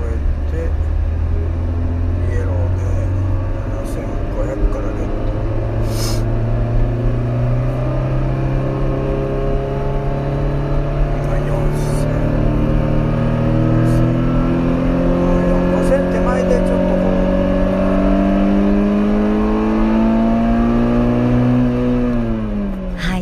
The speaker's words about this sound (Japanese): じゃあ一体ですね、これどんなふうなね。じゃあ走りをしてくれるのかということで、うん、まずは皆さんに実は桂さんがそのロードスター RF でサーキットですかいやテストコースだね、うん、テストコースね、ね走ってきたという、その音を取ってきてくれましたのでちょっと聞いてください。